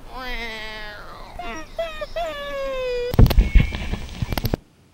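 A cat yowls during a bath in long, wavering, rising and falling moans for about three seconds, fairly loud, followed by a burst of noisy thrashing and splashing that cuts off abruptly.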